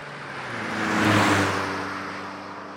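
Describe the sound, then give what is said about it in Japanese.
A patrol car speeds past, driven nimbly and carefully, with a rising engine roar and rushing tire noise that swells to a peak midway, then gradually fades out, with no voices. “鈴木はパトカーを手足のように操り、注意深く、そして俊敏に剣道を駆け抜ける。”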